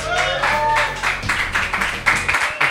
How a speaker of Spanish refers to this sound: Vámonos, fortísimo aplauso desde Sonidos Independientes